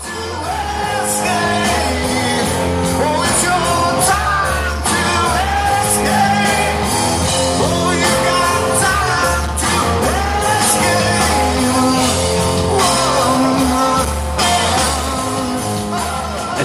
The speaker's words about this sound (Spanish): canción que estamos escuchando, por ejemplo, es del día 26 de junio de su concierto en Berlín, donde eh, se dejaron también la piel y tocaron 37 canciones.